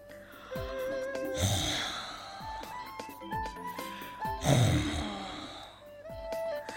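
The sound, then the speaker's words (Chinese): Two loud, rasping snores about three seconds apart, each a rough, breathy rumble, heard over a light musical background with no talking. “就在这时，他们又听到了打鼾的声音。”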